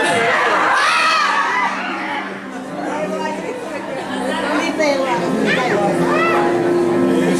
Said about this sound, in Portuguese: Dá um gritinho desse nome do seu vizinho pra ele acordar vai mulheres, me ajudam, vai! Vai!